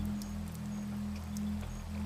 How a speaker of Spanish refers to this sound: Veo caer la lluvia desde mi cama y siento alivio. La lluvia me acompaña, me reconforta, me mima.